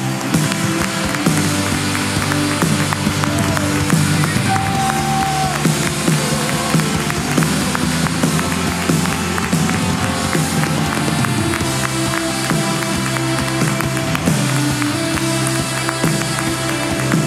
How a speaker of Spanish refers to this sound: Póngase de pie. ¿Cuánto dan un aplauso al Rey de Reyes, al Señor de los Señores? Vamos.